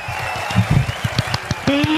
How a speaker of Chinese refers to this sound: 这里我这个应该应该要一个掌声呢，呜！